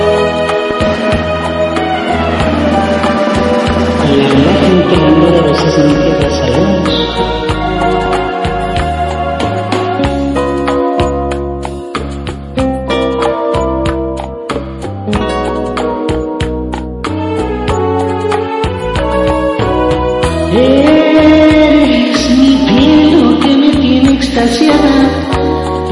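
An upbeat salsa song plays loud and continuous, a female lead voice singing over busy, driving percussion and bright accompanying instruments throughout.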